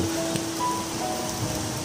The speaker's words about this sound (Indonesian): Apalagi kalau berada di suhu yang sangat hangat, eh bukan hangat ya tapi panas kayak di sini tiba-tiba hujan itu uh senengnya minta ampun ya Allah seneng banget akhirnya hujan ini